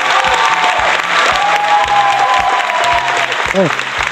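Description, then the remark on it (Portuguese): An applause sound effect on the radio program Criadores de Lixo: steady, dense applause from a crowd fills the whole stretch, loud and continuous, with some cheering mixed in and a voice briefly audible underneath near the end. “Cadê o de pau, Cadê a, cadê a palma?”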